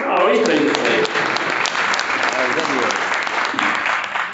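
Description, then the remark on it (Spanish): Steady audience applause, a dense wash of many hands clapping that stays loud and even throughout, with a few sharper individual claps standing out. “Muchas gracias a todos, muy buenas noches. Aplaudimos el”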